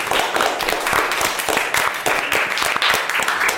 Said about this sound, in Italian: Un applauso a Maria Sole che è qui tra noi.